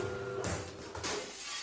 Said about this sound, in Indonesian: tuh kan bolanya kena gelas. Ya Allah, mana airnya tumpah di buku kakak lagi.